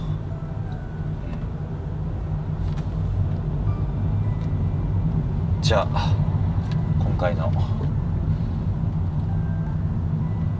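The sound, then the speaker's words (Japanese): Steady low rumble of a car engine and road noise from inside a moving car as the driver heads home, continuous throughout, with a man speaking over it and a few brief sharp sounds midway. “僕と車と終了したいなと思います気をつけて帰ります”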